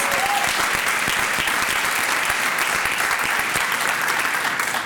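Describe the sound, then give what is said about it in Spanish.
Loud, sustained applause from an audience for the King of Kings, a dense wash of many hands clapping steadily for about five seconds without letting up. “Dale ese fuerte aplauso al Give Rey de Reyes.”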